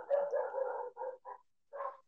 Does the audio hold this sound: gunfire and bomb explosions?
no